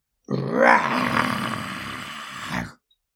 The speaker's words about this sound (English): Then suddenly, do you know what happened? There was another roar